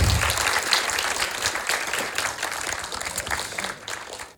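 Sustained applause from an audience, a dense crackle of many hands clapping at steady volume for several seconds before cutting off abruptly.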